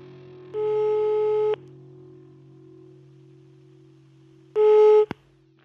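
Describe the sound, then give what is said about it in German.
A telephone ringback tone while calling: two steady, mid-pitched buzzing tones about a second long each, separated by a pause of a few seconds, with a faint hum underneath and a click right after the second tone. “Ich rufe den mal an.”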